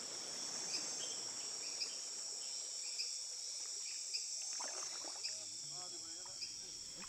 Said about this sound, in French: on se laisse glisser sur le long de l'eau et on écoute tout ce qui se passe dans la forêt